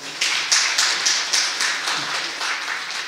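A church audience breaks into applause to welcome a pastor, a dense steady wash of many hands clapping with a faint recurring pulse, sustained at moderate loudness for a few seconds with no talking.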